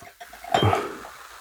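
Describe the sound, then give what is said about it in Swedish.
A single bright clink of champagne glasses touching, ringing briefly before fading into quiet room tone. No one speaks. “Kluck, kluck, kluck, kluck, kluck.”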